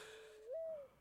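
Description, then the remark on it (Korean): A single low, mournful hooting note, swelling in the middle and then fading, voiced by a person imitating a mountain dove's coo in a Korean song, heard clearly on its own. “구슬픈 산비둘기 울음소리를 흉내내는 노래입니다.”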